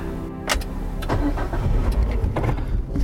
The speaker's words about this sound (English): So, um, let me get this car started.